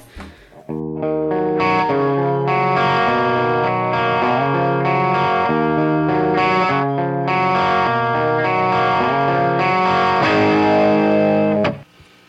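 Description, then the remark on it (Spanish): A mid-1970s Orange OR120 guitar amplifier demo: a loud, crunchy overdriven electric guitar strums a sequence of ringing chords for about eleven seconds, with no voices. “Eh, vamos a escuchar un ejemplo de un Orange OR120 de mediados de los 70 para que vean cómo se escuchaba.”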